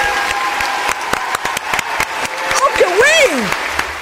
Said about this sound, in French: Ah oui, allez. On veut des applaudissements mérités. Plus fort.